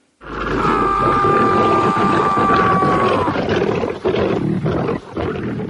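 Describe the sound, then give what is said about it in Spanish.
A lion roars loudly, one long sustained growling roar that rumbles for several seconds, followed by rougher snarling breaths, with no talking. “No lo comprendió hasta que su hijo fue devorado por un león.”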